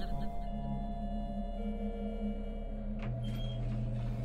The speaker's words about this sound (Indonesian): Pintu lift buka.